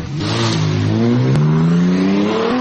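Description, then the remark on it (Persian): A car engine revs loudly on a city street where young people cruise around in fancy cars, its pitch climbing steadily over a couple of seconds, with a broad hiss of street noise around it and no voices. “ماشینای خوب همه اینجا پیداش میشه میچرخه اینجا دیگه بچه ها هستن هم هستن میچرخن”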